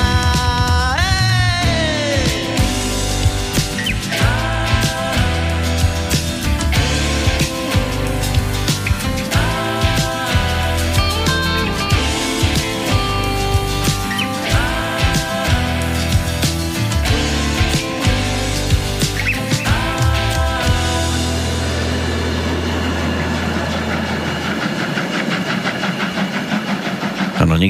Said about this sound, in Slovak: To, čo sme dopočúvali, bola vstupná pesnička do nasledujúcej hodinovky rozhovoru s osobou, ktorá je podpísaná pod touto skladbou,